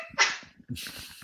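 A sudden sneeze bursts out, followed a moment later by a softer, breathy rush of air, with no talking.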